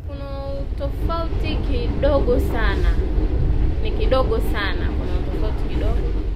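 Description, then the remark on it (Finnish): A steady, loud low rumble fills the inside of a moving train, continuous throughout, while a person speaks over it. “Nyt olen töissä tässä junassa ja kiitän siitä Jumalaa joka päivä.”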